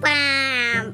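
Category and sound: vocal imitation, voice imitating a fart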